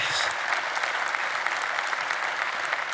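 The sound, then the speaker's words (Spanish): An audience breaks into sustained, loud applause for Christ, the king of kings, a dense wash of many hands clapping steadily at full volume for the whole stretch, with no voices standing out. “Ahora, déselo fuerte al rey de reyes.”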